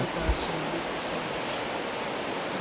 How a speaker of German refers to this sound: Das zieht da alle ans Wasser, gell? Ja. Alle Leute wollen ans Wasser. das Wasser hat schon was. Ja. nicht nur symbolisch gemeint, sondern ja, es nimmt schon viel mit, das fließende Wasser vor allem.